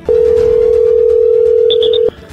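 telephone dialing tone

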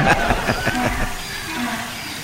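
donkey braying

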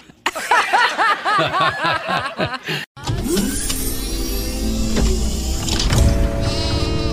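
sheep bleating

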